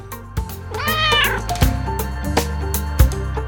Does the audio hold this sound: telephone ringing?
no